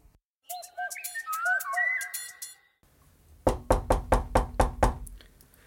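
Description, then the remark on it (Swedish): About eight sharp, evenly spaced knocks on a studio door ring out loudly, following a few seconds of whistled, bird-like tones. “Nu knackar det på studiodörren igen”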